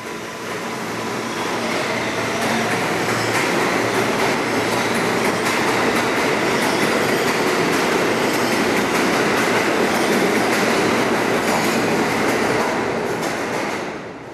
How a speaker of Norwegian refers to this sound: Det er fredag, og jeg setter meg på T-banen og drar mot Williamsburg.